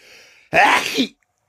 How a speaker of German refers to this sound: Gesundheit. Ich habe was Schlimmes aus dem Reflex gemacht. Ich habe genießt und dann war da ein bisschen Rotzes aus der Nase auf meine Hand.